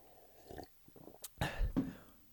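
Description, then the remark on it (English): Someone takes a quick sip of water: faint wet mouth clicks, then a soft slurp and a gulping swallow, ending with a short breathy exhale. “Let's take a quick sip of water.”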